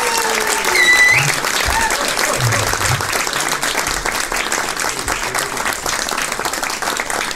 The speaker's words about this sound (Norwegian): Gi dem en god applaus!